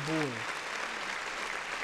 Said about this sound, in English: Man, get that nigga some claps, man. Yeah, for real. Get that nigga some claps.